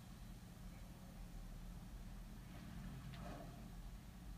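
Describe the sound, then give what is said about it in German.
A truck engine from a video game rumbles steadily at a low, quiet idle, a continuous droning hum with faint hiss and no speech over it. “Im LKW. Komm, steig ein.”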